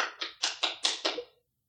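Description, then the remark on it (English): Six quick, sharp knocks in a rapid, even rhythm, distinct with no talking, someone imitating a person urgently banging on a door, each rap fading quickly before the next. “I hear somebody banging at my door seven in the morning, sharp, like sharp.”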